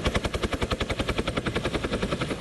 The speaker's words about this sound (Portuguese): No Kentucky, a polícia socorreu de helicóptero quatro pessoas que foram acampar e acabaram presas no topo de uma montanha por causa das condições climáticas.